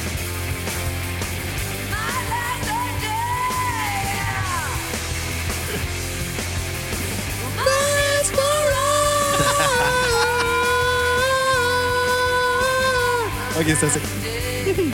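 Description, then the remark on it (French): A loud, distorted rock song with raw, strained screaming vocals over a dense band; the singing swells into long, wavering howls as the music gets louder partway through. “Montre le son quand ça va exploser.”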